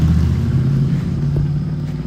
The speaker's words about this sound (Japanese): なんかこの道路バイクが多いですね